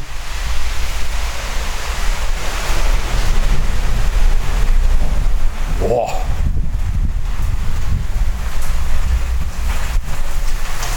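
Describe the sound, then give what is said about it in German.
Strong, gusty wind roars continuously with a heavy low rumble buffeting the microphone, broken only by a brief spoken exclamation midway through. “Boah, ist das ein Wind.”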